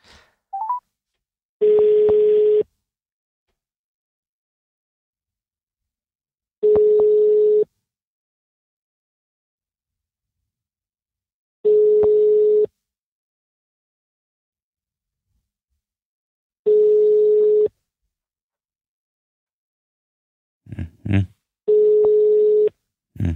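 A telephone ringback tone on a call to someone sounds five times, each steady one-second beep separated by long, even pauses, with no one picking up; a brief murmur of voice comes in near the end.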